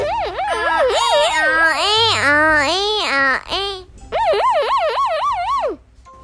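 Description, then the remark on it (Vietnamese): A child's voice mimics an ambulance siren with rapid rising-and-falling pitch sweeps, loud, in two bursts separated by a short pause. “Xe cấp cứu sẽ hú còi làm sao các bạn?”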